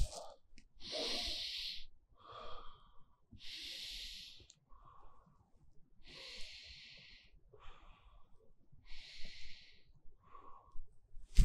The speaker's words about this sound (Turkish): diyafram nefes dediğimiz şey diyafram kasını kasarak alt ciğerlerimize, ciğerimizin alt kısmına hava doldurmamız anlamına geliyor. Diyafram nefesi. Bunu yaparken, nefes alırken şöyleyse yanlış üst taraf değil alt taraf şişecek. Şöyle göstereyim.